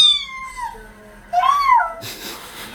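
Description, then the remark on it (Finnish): A cat gives two drawn-out, wailing meows that sound much like a crying baby, the first sliding downward and the second rising then falling, followed by a burst of hissy noise. “Ei erota kyllä, kumpi on lapsi ja kumpi kissa.”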